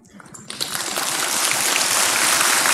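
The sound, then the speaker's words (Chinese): A crowd bursts into applause, dense crackling claps that start scattered and quickly swell into a loud, steady, sustained ovation with no voices on top. “好，你们能够这样的练习，能够鼓掌，我好欢喜。”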